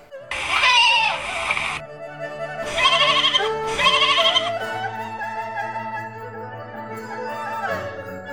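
A goat bleats three times in quick succession, loud and wavering, then gives a lower, drawn-out bleat that trails off. No one speaks.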